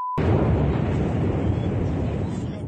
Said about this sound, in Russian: Взрыв произошел на аэродроме Саки, который находится в Новофедоровке, недалеко от общественного пляжа.